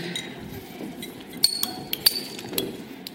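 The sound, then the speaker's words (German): Several sharp glass clinks ring out, a quick cluster of bright chimes with lingering tones, like beer glasses knocked together in a toast over a soft background. “So, cheers, gell? Zum Wohl.”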